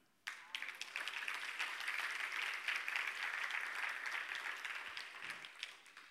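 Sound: audience clapping hands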